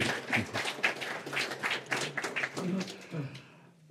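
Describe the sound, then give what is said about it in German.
An audience applauds for a few seconds, a dense patter of many hands clapping at moderate volume, with faint voices underneath, before the clapping thins out and fades at the end. “Ja, gern einen Applaus”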